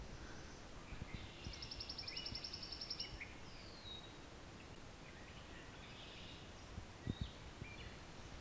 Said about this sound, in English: So we also have here pine warbler.